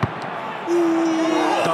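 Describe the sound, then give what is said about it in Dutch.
A football is kicked with a single sharp thump at the start as a man dressed as Piet shoots on goal at the Ajax goalkeeper, followed by a steady droning background with a faint second knock near the end. “De keeper zet zich schrap. Daar komt het schot”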